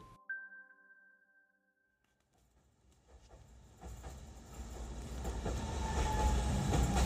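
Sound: tram ride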